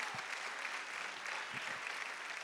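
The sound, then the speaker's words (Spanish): An audience applauds the Lord steadily, a dense wash of many hands clapping at once with no individual claps standing out, sustained and even in volume throughout. “Yo que usted le daba un aplauso al Señor, hermano.”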